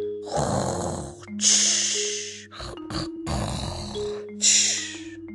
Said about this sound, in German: Und dann begann der Riese wieder einzunicken und zu schnarchen, dass das ganze Haus wackelte.